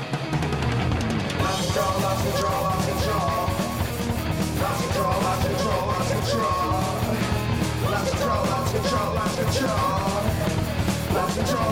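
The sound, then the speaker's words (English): Loud, driving rock music plays throughout, with a cowbell clanking along in a steady rhythm over distorted guitars, pounding drums and shouted vocals. “Cowbell.”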